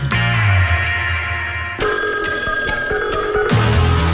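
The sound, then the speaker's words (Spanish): A telephone rings loudly and steadily with a bright, trilling bell tone that shifts in pitch partway through, heard alone without any talking, as a radio show opens its phone lines for listener calls. “Se abren las líneas telefónicas del teléfono de los atorados, porque hoy cumplimos 30 años y tu saludo es nuestro mejor regalo”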